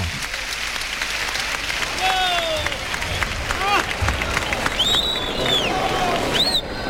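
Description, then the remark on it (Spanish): A bullring crowd breaks into sustained applause, an ovation for the matador Morante after the bull falls, a dense steady roar of clapping, with shrill whistles and scattered shouts rising above it throughout. “Y ahí está saludando la ovación del público.”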